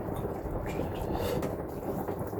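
Dense, steady drumming of hail or heavy rain during a storm, a continuous rush of countless tiny impacts at even loudness with no voices.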